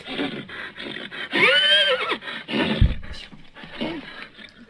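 A horse neighs loudly, a long rising-and-falling whinny with strong harmonic bands, followed by snorting and shorter breathy calls over a noisy background, with a low thump near the middle.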